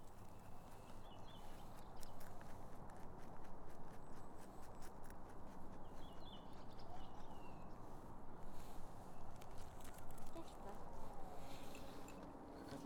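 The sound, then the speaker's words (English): A white rabbit in the woods chews lettuce from a girl's fingers, a microphone with a furry cover held against its head, in a steady, rapid stream of soft crunching and grinding, the tiny bites running together continuously over a low, muffled rumble. “And, with that, it's there eating out of her fingers, chewing with only a faint sound inside those chubby, insulated, furry cheeks.”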